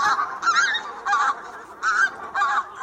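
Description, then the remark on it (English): Pink-footed geese honk repeatedly in a steady series of nasal, two-note calls, about five bursts in quick succession, clear with no other sounds. “Two geese species from the far north have been in the news recently the pink footed goose”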